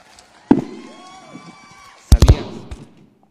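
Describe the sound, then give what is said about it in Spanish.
A short jingle for the radio show Live 316, played while the new host is welcomed: a sharp hit opens it, sustained synth tones and a swooping sweep follow, then a quick burst of loud, booming impacts before it fades out. “Vamos aquí a, a meter la cortinilla mientras damos la bienvenida a la nueva conductora de Live 316.”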